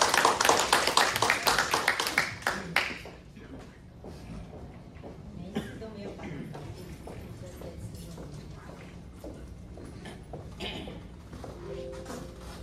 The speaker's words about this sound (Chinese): 谢谢，我们延续掌声，感谢我们美丽大方的主持人，